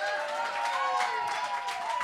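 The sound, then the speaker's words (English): A debate audience cheers steadily for about two seconds, trying out a cheer at the judge's request, a dense wash of voices with a few higher whoops and sustained shouts riding on top, fairly loud throughout with no talking. “and if you agree with my decision, I want you to cheer. Give that a shot right now.”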